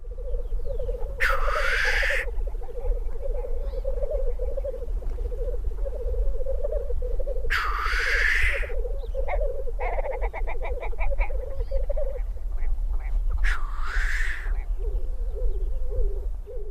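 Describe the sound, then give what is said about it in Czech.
Black grouse cocks lekking at their lek site: a continuous low, dovelike bubbling chorus, broken three times by loud hissing sneeze-like calls, with a brief run of rapid clicks midway, outdoors. “k bližšímu studiu zvuků, které tetřívci při toku vydávají”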